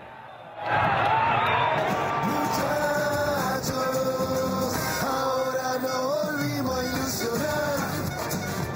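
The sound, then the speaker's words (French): A large crowd in the Argentine capital cheers and chants as the bus carrying the world champion team passes, players greeting them and holding up the trophy under a blazing sun at 28 degrees: a dense, loud roar of many voices with rising and falling sung tones, swelling in after a quieter first half-second. “Les joueurs, eux, saluent la foule se prennent en photo, tout sourire, et évidemment brandissent le trophée que le pays attendait depuis 36 ans.”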